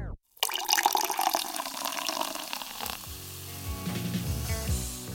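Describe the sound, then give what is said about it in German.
A carbonated drink is poured into a glass, a steady rush of liquid with bright fizzing and crackling bubbles that settles into lighter popping and gurgling toward the end. “Grob gesagt sorgen die dafür, dass es schäumt beim Einschenken.”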